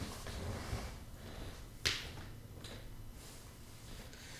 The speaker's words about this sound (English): Well, let's say if something goes wrong, and let's say you're sick of it, ritually press power, it'll pick the tone arm up, bring it back to the rest, and turn the whole system off.